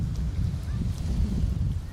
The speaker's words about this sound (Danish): der blæser jo lidt i dag, ikke? Det er lidt, øh, det er en lidt windy dag. Det er det.